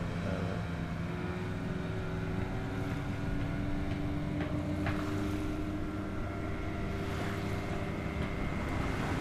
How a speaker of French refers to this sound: C'est vrai que c'est l'autoroute. Hein. On n'arrête pas d'entendre des pirogues qui passent.